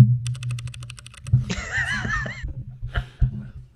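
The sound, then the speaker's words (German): A quick burst of roughly a dozen crisp, evenly spaced keystrokes on a Keychron K8 Wireless mechanical keyboard with brown switches, not hot-swappable, clear, followed by a person's laughter and a few scattered sounds over low background hum. “also ziemlich cool und da haben wir halt eine mechanische Tastatur gekauft, weil ich endlich einen Grund haben wollte, dass ich mir eine mechanische Tastatur kaufe.”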